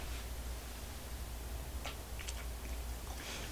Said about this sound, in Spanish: Yo estoy aquí frente a mi taza de café recién colado para darme ese sorbito mañanero y contarles los temas principales de este 25 de octubre de 2023. Así que voy con este sorbito sin azúcar.